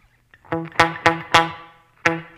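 Several short, sharply struck pitched notes ring out one after another, each fading quickly in the tight tail of a small-room reverb setting, with a pause before the final note.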